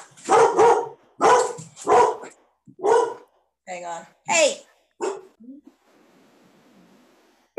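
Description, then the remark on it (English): A dog barks loudly in a quick run of sharp, yelping barks with a whiny edge. A person briefly speaks between them before it fades to quiet room noise. “yeah, we had to take a quick screaming dog and choking on wine break.”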